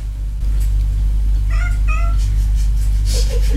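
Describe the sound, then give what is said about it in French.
A cat gives two short meows in quick succession over a steady low hum of mechanical ventilation in a living room, followed by a faint softer chirp; nobody speaks. “Merci le chat.”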